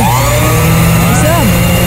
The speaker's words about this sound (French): Mais là, c'est quand tu passes le malaxeur, le blender sur le bord de ton bol quand tu fais les muffins, là, juste avant d'enlever les bouts puis de le lâcher ou de le donner aux enfants.